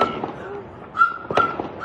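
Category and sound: impact, gunshots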